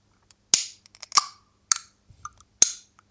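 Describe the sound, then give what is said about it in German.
A bottle of iced coffee being opened, heard as a string of sharp, crisp clicks from the cap: four louder snaps at uneven intervals with faint ticks between, and no voices. “So, ich würde den Eiskaffee mhm. jetzt mal aufmachen.”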